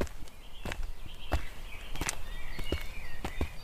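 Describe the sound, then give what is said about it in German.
Footsteps crunch along a bumpy, uneven path through densely wooded terrain in a steady walking rhythm, a dozen or so steps with scuffing, over faint outdoor ambience with thin high chirping in the background. “Wir schritten den holprigen Pfad zurück, den wir vorhin mit unserem blauen BMW hinaufgefahren waren.”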